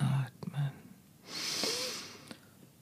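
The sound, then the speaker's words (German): A single slow, deep, conscious breath drawn in, lasting about a second with a soft rushing hiss, preceded by a few brief vocal sounds and short clicks. “Und stattdessen einfach das bewusste Atmen. Ein und aus.”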